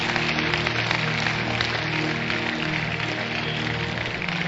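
A church audience claps their hands for the Lord after a prayer, a steady, dense wash of applause that fills the whole stretch at an even loudness, with a low sustained musical tone humming underneath.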